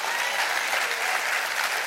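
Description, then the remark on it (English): A crowd of people clapping their hands in steady, dense applause, a loud continuous patter of many overlapping claps with no pauses and no voices standing out. “Would you clap your hands and rejoice to that?”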